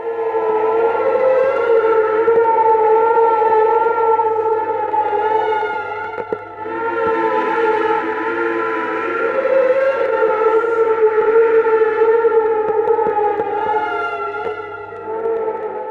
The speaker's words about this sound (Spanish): Es entonces cuando surge una figura maligna, perturbada, al igual que sucede con la distorsión de esta música tan inquietante que hemos escuchado